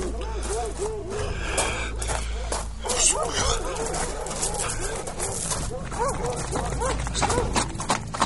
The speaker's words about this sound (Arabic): الكلاب تنبح تو ما طلع حد